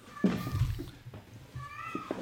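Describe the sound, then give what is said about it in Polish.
A female cat in heat meows loudly twice behind a closed door, calling for a tomcat, each cry drawn out and wavering, sounding slightly muffled, with no one talking over it. “Ona teraz będzie jeszcze głośniej płakać, bo zamknąłem drzwi.”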